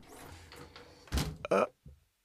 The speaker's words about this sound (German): Mach die Tür hinter dir zu